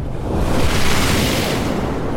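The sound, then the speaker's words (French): A single loud, synthesized ocean wave rushes in abruptly as a dense wash of noise, given movement and filtered with boosted treble for a foam effect, its hissing foam brightening briefly before settling into a steady roar. “c'est à peu près le même son au départ, sauf que, euh, un, je lui donne du mouvement, donc la vague est beaucoup plus brusque, et d'autre part, il y a un filtrage à la fin qui donne un effet de, d'écume en fait, en boostant les aigus sur la fin.”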